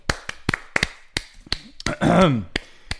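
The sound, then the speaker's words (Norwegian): Sharp, loud hand claps ring out in an uneven pattern, about a dozen over three seconds, with a brief burst of sliding, pitched noise midway through. No one speaks. “Episode 40 skal vi klappe for.”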